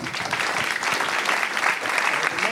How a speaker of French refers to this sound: on applaudit